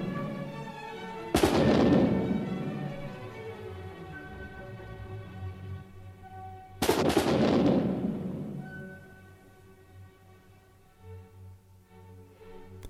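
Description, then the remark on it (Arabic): Two loud cannon-like blasts from special mechanical instruments built to imitate cannon and rifle fire in a battle scene, about five seconds apart, each ringing into a long fading rumble over sustained orchestral notes from violins, wind instruments and drums. “بتبدا المعركة أصوات بتشبه المدافع والبواريد عم تدوي وتلعلع بتعزفها آلات ميكانيكية خاصة صممت بوقتها لتمثل أجواء المعارك والأوركسترا من كمانات وآلات نفخ وطبول عم ترافقها بألحان دراماتيكية مثيرة بتضل شغالة هيك لحتى ينطفي آخر مدفع معلنا انتهاء المعركه”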